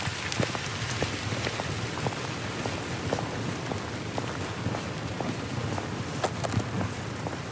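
Steady rain falls all around in a forest at night, a dense, even hiss dotted with sharper individual drops pattering on leaves and ground. No voices, just the continuous downpour.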